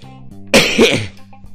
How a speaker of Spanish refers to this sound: Disculpad la tos.